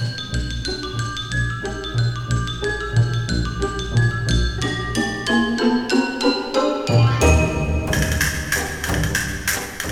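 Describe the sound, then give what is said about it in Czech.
A xylophone plays a quick run of bright, ringing struck notes over a steady low accompaniment, the busy melody continuing fairly loudly for about ten seconds without any talking. “Xylofon.”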